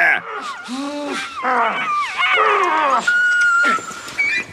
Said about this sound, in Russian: Ой, собаку было прям жалко, Я надеюсь, он не кусал ее по-настоящему. Она так вопит там.